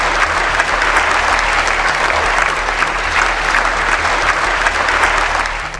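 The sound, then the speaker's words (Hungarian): Sustained, dense applause from a large crowd following Yulia Navalnaya's speech in Strasbourg, a steady roar of many hands clapping at once, loud and even throughout with no voices standing out, easing slightly at the very end. “Julia Navalnaya Strasburgi beszédét egyébként olyan nagy taps követte, amely teljes egészében kitenné a breaking egy komoly részét, úgyhogy ízelítőül csak ennyit.”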